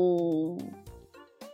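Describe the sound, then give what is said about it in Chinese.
A voice softly imitates a cat's meow: a steady, high-pitched hum that bends and fades, followed by a couple of brief, quiet vocal sounds. “大肥猫紧紧地抱着桃子，喵的小声地回答道：“ 嗯嗯，喵。”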